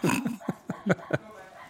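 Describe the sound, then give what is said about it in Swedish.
A dog whines briefly, then lets out four short, sharp barks in quick succession, moderately loud, with no talking over them. “kan du bara ta bort den här hunden?”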